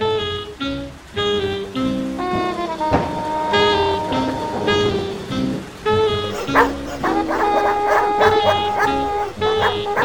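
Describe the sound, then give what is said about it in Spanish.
Several dogs bark in rapid, overlapping bursts in a street, loud, with sharp yips and a few whining notes mixed in, over a faint hiss like light rain. “se quedan detrás mío, me ladran unos segundos y ahora se retiran.”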